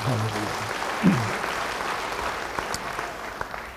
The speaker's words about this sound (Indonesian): Beri tepuk tangan bagi dia.